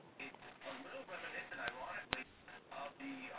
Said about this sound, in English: I'm hearing a lot of static, but I'm not catch, catching your voice